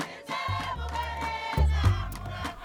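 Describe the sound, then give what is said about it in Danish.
A person imitates the peaceful contentment vocalization of wild mountain gorillas: two long, deep, grumbling hums in a row, steady, with a rougher swell in the second one. “Now I had to crawl around for two years, came to imitate their peaceful vocalization, their contentment vocalizations, mom like this.”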